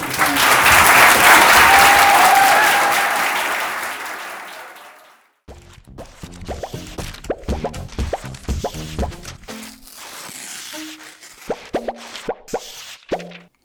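A dense, loud round of applause from an audience at the close of an evening event swells and holds for several seconds before fading out, followed after a brief pause by scattered sharp plopping, dripping sounds.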